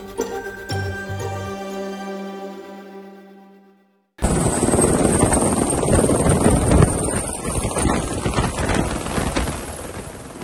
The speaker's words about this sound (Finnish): Helikopteri lentää matalalla sokeriruokoviljelmän yläpuolella Queenslandissa. Se on pudottamassa myrkkysyöttejä tuhoisan hyökkäjän pään menoksi.